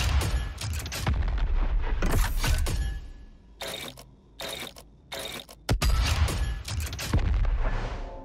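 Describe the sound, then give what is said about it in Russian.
Loud, dense video game combat effects: rapid gunshot bursts, booming blasts and metallic mechanical clanks, with a few short sharp shots standing out during a brief lull midway. No one speaks. “как при этом ты еще перезаряжаешься, и вот эти звуки разного оружия, звуки прыжков, там скрип доспехов, распиливания.”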